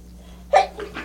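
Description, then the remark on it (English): A single sharp sneeze bursts out, followed by a couple of softer trailing breaths or small aftershocks, against a low steady hum. “Bless you.”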